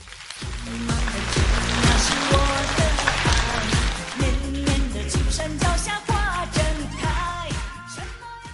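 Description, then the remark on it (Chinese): A crowd applauding in a steady, dense wash of clapping that holds for the whole stretch, with loud rhythmic music playing underneath it. “听懂的，掌声鼓励一下。”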